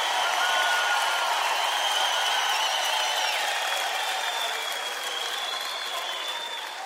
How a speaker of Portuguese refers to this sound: Eu gostaria de um caloroso aplauso de vocês para um dos meus ídolos.